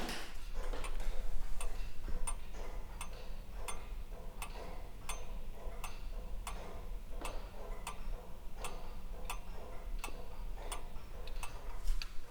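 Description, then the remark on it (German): Steady, even ticking of a small pendulum wall clock, a Dachluhr, the smaller relative of the lantern clock, with its case opened; clear, regular sharp clicks roughly every second over a low background hum and no talking. “Zimmer nebenan hängt neben anderen Laternenuhren auch eine Dacheluhr. Das ist sozusagen der kleine Bruder von der Laternenuhr.”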